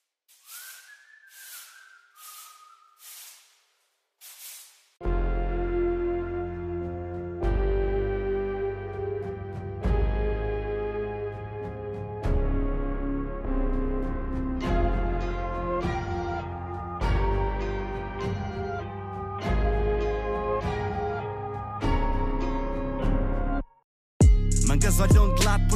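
A few short hissing, whistly bursts, then a song kicks in loudly with a steady beat, deep bass and layered sustained melody, running on with a brief cut near the end.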